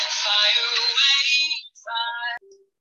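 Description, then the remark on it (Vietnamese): A bright electronic phone ringtone for an incoming call chimes loudly, one long melodic burst followed by a shorter phrase, then it cuts off. “xin lỗi các bạn có một chút uh, vấn đề um, có điện thoại à”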